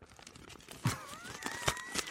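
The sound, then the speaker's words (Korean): A small collapsible mesh hand fan that folds to fit in a handbag being folded up, with soft rustling and crinkling plus a few sharper snapping bursts spread across two seconds, fairly quiet and without any talking. “이렇게 이렇게 접는 건 접는 소리 들리죠?”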